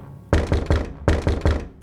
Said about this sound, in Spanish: Con unos golpes secos sobre la puerta intento que se abra, tornándose imposible. Aparte de lo sólido de esta, mis fuerzas no son las suficientes para poder abrir la pesada lámina.